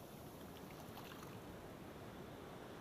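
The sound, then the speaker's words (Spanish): A steady wash of ocean water with continuous hissing surf and a low rumble underneath. There are no distinct breaks between waves and no voices. “Porque el constante ir y venir de las olas invitan al cerebro a desconectarse y hace que el cuerpo se relaje, provocando en ti una respiración más pausada.”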